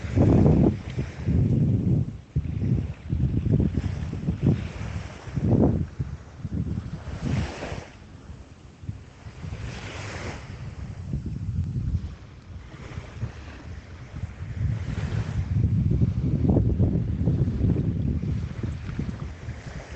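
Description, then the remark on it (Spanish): Ocean waves wash onto the shore in broad, rolling surges, swelling and receding with a steady rhythm, with some wind rumble mixed in and no voices. “Escucha todos estos sonidos del mar, las olas que llegan hasta la orilla, ese sonido tan sanador, ese sonido tan tranquilizador.”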